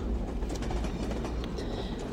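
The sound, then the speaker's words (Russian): A passenger train heading south rolls along the rails with a steady, heavy rumble and faint high rattling, continuous throughout with no voices. “Поезд неустанно мчался на юг, за окном почему-то не кончался дымно-розовый закат.”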